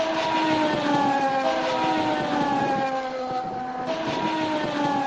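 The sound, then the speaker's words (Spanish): Carlos Sainz's Formula 1 car screams by trackside at the Sakir circuit, its high-pitched engine wailing loud, the pitch rising and dipping across the pass with no voices over it. “Bueno, pues es Carlos Sainz pasando por el circuito de Sakir a pie de pista”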